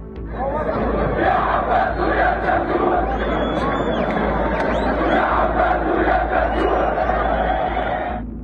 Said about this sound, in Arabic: الصور والفيديوهات التي شاهدناها للفلسطينيين وهم يدخلون المسجد الاقصى لاداء الصلاه بعد وقف إطلاق النار بعد دخوله حيز التنفيذ كلهم كانوا يرددون وبصوت واحد